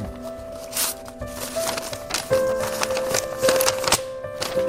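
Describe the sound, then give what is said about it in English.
Short stretch of music with sustained, shifting tones over busy clicking and crackling percussion, played at moderate volume with no one talking. “Before I read the mail, I got to get my letter reading music.”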